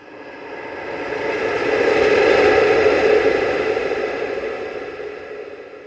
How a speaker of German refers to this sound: Der eisige Spätwinterwind biegt an diesem Tag die letzten verbliebenen Gräser und Halme mit seinen unbarmherzigen Böen bis fast auf den gefrorenen Boden. Neben dem Pfeifen und Heulen der schneidend kalten Windböen ist an diesem Tag nichts zu hören.